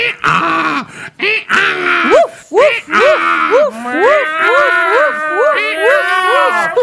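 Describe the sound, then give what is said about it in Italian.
People imitate donkey, dog, cat and rooster calls: first a run of short, arching vocal cries, then several voices overlap in a loud, continuous chorus of animal noises. “E, um, iniziano a, a, fare un piccolo concerto con i loro versi.”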